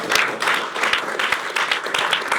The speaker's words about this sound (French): On peut l'applaudir.